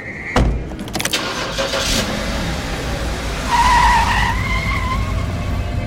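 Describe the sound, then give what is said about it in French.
A taxi in La Paz pulls away, its engine revving up with a brief tire squeal, then a steady rising engine drone as it drives off. No one speaks. “Jaime et Miguel sautent dans un taxi.”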